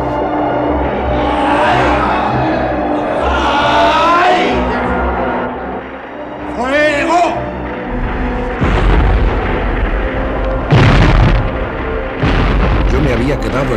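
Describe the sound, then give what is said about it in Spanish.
Battle din with cannon fire as the front lines advance on the French centre: heavy booming bursts from red-hot cannons, strongest in the second half, over a constant rumble, mixed with wavering shouts and cries that rise and fall. “Los cañones al rojo vivo, empujados por nuestros artilleros, rodaban buscando nuevos emplazamientos.”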